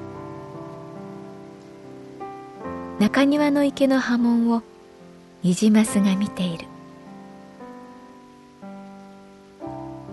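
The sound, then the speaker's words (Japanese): Steady rain patters on trees in Hokkaido in two short bursts of hiss over soft sustained music, with a voice speaking through parts of it. “確かに北海道は空気の香りが違う鼻の奥にマイナスイオンが届く感じ雨のおかげで木々の息が聞こえる”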